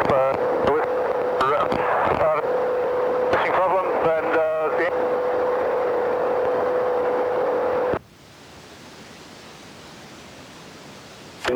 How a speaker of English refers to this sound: Your transmissions are badly broken.